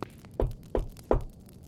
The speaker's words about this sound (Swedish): Det knackar på din dörr.